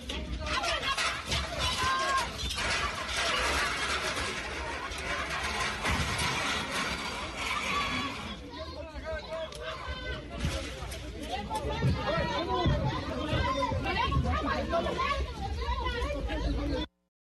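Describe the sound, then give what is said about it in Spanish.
A loud crowd of protesters from Acambay shouts and clamors as they smash the gate and force their way into the Conagua facilities, with sharp bangs and rattling mixed into the steady roar of voices for the whole clip. “Así se vivió la irrupción de los pobladores de Acambay en las instalaciones de Conagua.”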